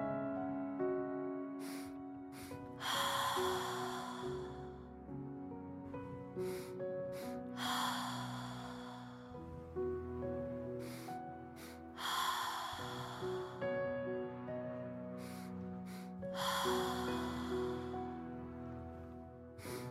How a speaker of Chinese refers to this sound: 第四节，循环叹息。动作讲解：鼻吸口呼，吸气两次，轻吸，重吸。叹息，请跟随呼吸声开始练习。